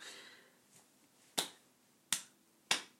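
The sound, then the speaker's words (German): A coin is flipped and caught in a coin toss to decide who goes first, landing heads: three crisp, sharp clicks spaced under a second apart, with a faint tick before them and no voices. “ich habe gehört, du hast Bock, die Münze zu werfen.”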